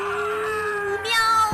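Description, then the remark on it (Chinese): A single long, drawn-out cat yowl of pain as its tail is cut, a steady wailing meow that grows louder and harsher toward the end before cutting off abruptly. No talking. “喵！猫先生顿时惨叫起来，他的尾巴渗出了鲜血。”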